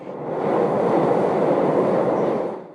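A train rumbles past on the rails, a steady broad roar that swells in, holds loud for a couple of seconds, then fades away. No voices are heard.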